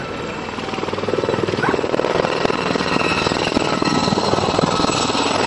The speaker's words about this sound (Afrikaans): En in hierdie oefening het ons nou 'n helikopter wat laag oor die takke vlieg. Hy nou, verdagte is nou reeds in die water. Ons gesien hier kom die helikopter met honde.